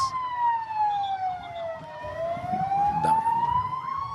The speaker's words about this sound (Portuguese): Quando começamos a falar, somos interrompidos pelo som das sirenes. Um som que se aproxima e por uma carrinha que irrompe pela praia a alta velocidade.